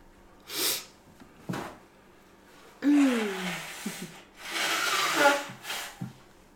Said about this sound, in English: Okay, well, I'm gonna blow my nose then while we're